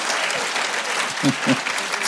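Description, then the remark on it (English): A church audience claps together during a sermon in a dense, steady wash of applause, with a couple of louder, sharper claps standing out near the end. “I'm sorry, but when I preach, we have one rule, and that is if one person claps, we all clap.”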